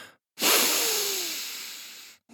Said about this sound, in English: Dallas's eyebrows shot up as he took in a long sniff.